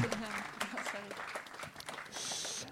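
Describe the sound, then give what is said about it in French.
An audience applauds steadily, a dense crackle of many hands clapping, while a voice speaks over it. The clapping swells into a brighter, fuller patch toward the end. “On peut les applaudir.”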